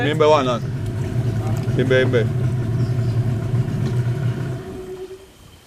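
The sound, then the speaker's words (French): A motorboat engine drones steadily with a low, even hum in a mangrove, then is cut off near the end and fades away. Brief voices are heard over the engine noise. “Vous voyez que là, on a coupé le moteur.”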